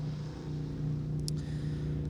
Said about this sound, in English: Um, hold on, hold on. Motorcycle driving by.